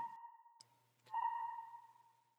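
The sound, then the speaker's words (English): Soft electronic pings ring out from the top corner of a room, sonar-like, each a steady mid-pitched tone with a sharp click at its start. Two pings sound within a couple of seconds, the second swelling louder, with no voices present. “And that's when you hear the gentle rhythmic pinging coming from the top corner of the room.”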